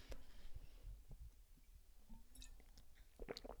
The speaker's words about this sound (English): Take a sip of water for this